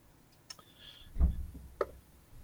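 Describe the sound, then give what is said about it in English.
Dice rolled for damage in a tabletop game clatter briefly across a tabletop: a sharp click, then a short tumbling rattle with a dull thud, and one last tick as they settle. Fairly quiet, with no talking. “Wrong dice.”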